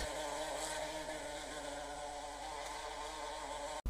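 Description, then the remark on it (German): A bumblebee buzzes steadily over a meadow, a continuous low droning hum with no voices, broken only by a brief dropout just before the end. “Und die Hummeln sorgen gut dafür, dass die Blumen deren Honig ihnen schmeckt, in jedem Jahr reichlich auf unserer Wiese vertreten sind.”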